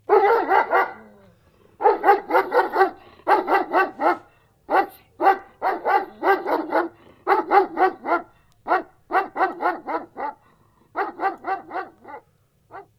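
A dog barks over and over, loud sharp barks in quick clusters of two to four, with short pauses between bursts and no one talking.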